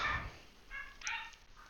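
Several faint, muffled dog barks in a short irregular series with no talking over them.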